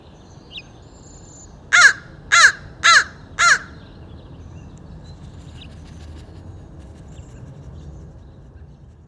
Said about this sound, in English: in comes the sound of crows squawking in the trees and perching on telephone poles nearby